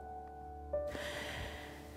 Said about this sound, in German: Wir nehmen einen Schluck Wasser, nochmal einen tiefen Schnauf und machen weiter.